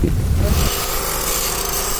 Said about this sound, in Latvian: Vecā Alepo tirgus klusumā un tukšumā atbalsojas strādnieku darba rīku ritms. To vecpilsētā varēs dzirdēt ik pa laikam.